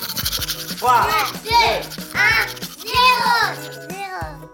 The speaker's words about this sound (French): Ok, mais moi je ne raconte mes histoires qu'aux enfants qui se lavent les dents. Alors attrape ta brosse à dents, ton dentifrice, et tu frottes jusqu'à ce que l'histoire soit terminée.